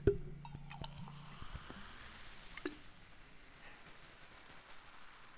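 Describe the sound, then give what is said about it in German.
Cola is poured into a glass in a short gurgling burst, followed by a steady, soft fizzing crackle of bubbles that continues on its own, fairly quiet. “Ja, ich hoffe, dass es jetzt übers Mikrofon rüberkommt. Jetzt habe ich mir eine eingeschenkt.”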